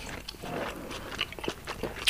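Someone chews deer meat from a deer they shot themselves in Kiikoinen, with soft, irregular wet bites and small clicks, a few sharper crunchy bursts standing out, especially toward the end. No one speaks.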